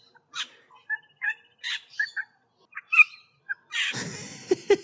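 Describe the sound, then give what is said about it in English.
A bird mimics a small water bird's calls: a string of short, scattered chirps and squawks, then a louder, harsh, rasping burst near the end, with no talking. “And this is what it sounds like when it's imitating a little water bird.”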